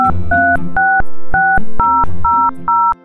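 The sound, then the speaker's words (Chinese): A telephone being dialed by a shop assistant calling to contact the lost-child service: seven loud touch-tone keypad beeps in a steady, even rhythm, each a bright two-note tone with a small click at its start, with no voices. “店员阿姨打电话给某个人，接着联络了走失服务处。”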